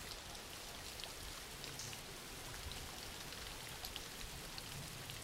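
Steady rain falls in a dense, even hiss, with scattered drops pattering on a surface. The sound stays at a soft, constant level throughout, with no voices.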